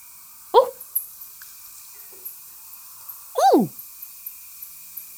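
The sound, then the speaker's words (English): Small furry bats catching insects call with faint, high tinkling clicks repeated in a quick steady series, while two louder downward-sweeping swooshes pass as bats fly past. “It almost sounds like an ice block in a glass. Tink, tink, tink.”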